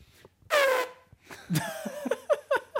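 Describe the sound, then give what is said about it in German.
A voice imitates a blaring horn with one loud, sustained honk, then breaks into a run of short, wobbling vocal toots and laughter-like bursts, fairly loud. “Ich fand, meine Horn-Interpretation ist, ist, gut.”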